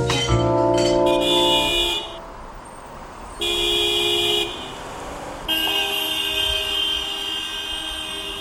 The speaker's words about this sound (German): Stau Ich hasse es.